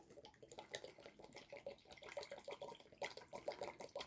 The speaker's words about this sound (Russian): Наливаем стакан молока сюда, да, миндального.